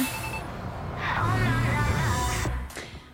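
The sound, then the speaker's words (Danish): A bus engine rumbles low, its pitch rising as the bus pulls away from a bus stop, then the drone thins out and fades near the end. “Og måske hørte du bussen, der kørte væk i starten.”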